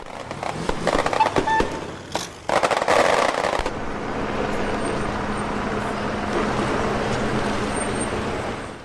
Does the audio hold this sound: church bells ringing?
no